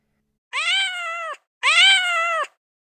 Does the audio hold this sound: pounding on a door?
no